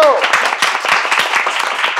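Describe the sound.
Loud, dense applause from a crowd, a steady rapid patter of many hands clapping that holds strong for about two seconds, with a brief voice at the very start.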